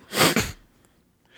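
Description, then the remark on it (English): A voice imitates a single forceful puff of air blown out through the nose, like when looking at memes on a phone, fairly loud, lasting about half a second before fading into near silence. “No, it's like whenever like you're scrolling on your phone and you look at memes and you just get that puff of air out of your nose. It's just that”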